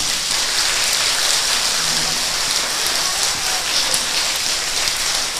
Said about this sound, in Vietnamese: bây giờ các con có muốn vượt qua hết ba điều vừa nêu không nếu muốn cho một tràng vỗ tay thật lớn nào